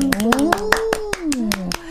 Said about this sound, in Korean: 이 어려운 상황에서 취업이 취업? 됐단 말이에요? 이건 박수 보내드려야 된다.